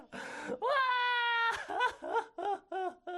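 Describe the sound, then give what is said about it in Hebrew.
A man weeps loudly, letting out a long quavering wail that breaks into a series of short, rhythmic sobbing cries. “ויישא אברהם את קולו, ויבק עוד”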